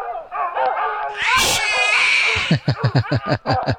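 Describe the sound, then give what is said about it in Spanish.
A chaotic animal scuffle as dogs are set loose on a cat: harsh hissing and a long screeching yowl from the frightened cat, then a quick, rhythmic run of loud, energetic barking bursts from the dogs. “Voy a, voy a, soltar los perros.”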